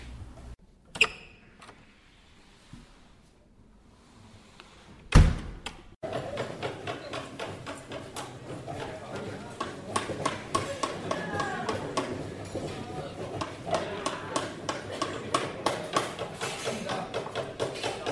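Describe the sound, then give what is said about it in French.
A few scattered knocks and clicks, then a sharp bang, followed by a steady, loud rasping of sanding or sawing peppered with rapid wooden taps and mallet strikes in a busy school woodworking workshop, where many students make small furniture with saws, mallets and sanders under a teacher's supervision. “Les élèves travaillent sur de petits meubles, ils utilisent des scies, des maillets et des ponceuses sur le- sous l'autorisation de le- du professeur.”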